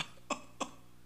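Two short, dry coughs in quick succession, about a third of a second apart, fairly soft and close, with no talking around them.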